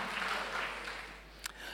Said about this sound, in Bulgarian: О, ако ръкопляскаш, ръкопляскай, като че ръкопляскаш на Бога.